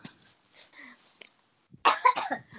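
Someone coughs: a few quiet, muffled coughs first, then after a short pause a louder, harsher burst of two or three rough coughs.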